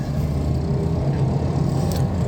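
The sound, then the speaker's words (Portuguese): A police car drives by, heard as a steady, fairly loud low engine rumble with road noise lasting a couple of seconds, without any siren and with no one speaking. “Nossa, passou a polícia ali, caralho, que susto.”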